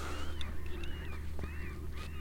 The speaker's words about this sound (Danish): tror, det er en mågefest, der er i gang et eller andet sted. Sådan en masse måger, der er i gang med at have fundet et eller andet, de kan æde